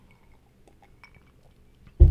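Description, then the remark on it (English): Someone sips a drink from a glass: faint, scattered clinks and small liquid sounds, then a sudden loud, low thump at the very end. No one speaks. “Let me take a, a sip of my drink before I start talking about highly questionable.”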